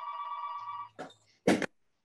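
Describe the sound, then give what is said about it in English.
A telephone rings with a steady electronic tone for most of a second, then stops abruptly as someone catches it to turn it off, followed by two sharp clattering clunks like a handset being picked up and set down. “I'm going to have to try to catch this phone and turn it off.”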